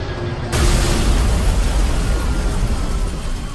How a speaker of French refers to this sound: À 8h46 exactement, un avion percute la tour nord du World Trade Center.